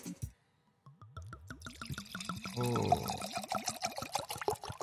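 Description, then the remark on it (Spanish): A drink is poured steadily into a glass, a rapid run of gurgling glugs whose pitch climbs as the glass fills, growing louder midway and continuing to the end. “Le serviste con confianza. Sí, le servimos con confianza.”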